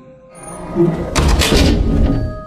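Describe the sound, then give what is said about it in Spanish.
A loud, heavy bedroom door in a house slams shut violently, a sudden thud followed by a booming, reverberant crash that lingers for about a second before fading. “Era el sonido de una puerta cerrándose. La puerta de mi habitación se había cerrado con violencia”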